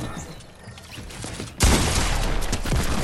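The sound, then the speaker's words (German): A quieter stretch gives way to a sudden burst of sustained rapid automatic gunfire from a video game, sprayed from the side, loud and dense, continuing unbroken to the end with a faint voice underneath. “Und wieder von der Seite gesprayt.”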